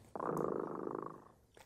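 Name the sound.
cat purring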